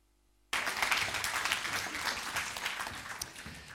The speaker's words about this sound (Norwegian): Jeg tolker den nølende applausen som trang til å få se mer.